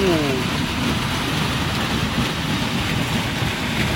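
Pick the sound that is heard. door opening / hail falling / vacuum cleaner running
hail falling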